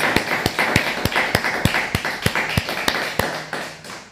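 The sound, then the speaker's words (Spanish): An audience applauds all the nations with steady, rhythmic claps in unison, sharp beats falling about three times a second over a dense wash of scattered clapping, with no voices. “les decimos Shabbat Shalom, fuerte aplauso a todas las naciones.”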